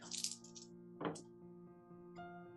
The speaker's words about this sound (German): Ich habe eine 8 und eine 9 gewürfelt. Das ist 17.